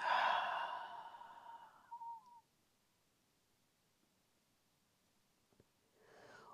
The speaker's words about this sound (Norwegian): Vi tar det en gang til. Pust godt inn med nesa. Og ut gjennom munnen.